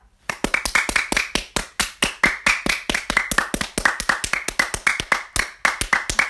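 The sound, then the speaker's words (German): Hands clap steadily in a quick, uneven rhythm, dozens of sharp, bright smacks packed closely together for several seconds, loud and clear with no talking. “Ganz normal Klatsch. Warte, mach nochmal.”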